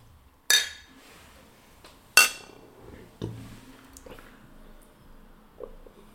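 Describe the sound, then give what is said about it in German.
Two bright clinks of beer glasses in a toast ring out a second or so apart, followed by a few softer knocks and taps as the glasses are handled. “Prost.”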